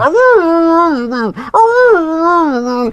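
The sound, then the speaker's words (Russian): A person imitates a husky's howl in two long, loud, wavering vocal wails, the pitch sliding up and down, separated by a brief catch of breath. “Потому что мы слышим, как с нами разговаривает кошка, когда ей нужно нам что-то объяснить и собака, вот я хаска, которая...”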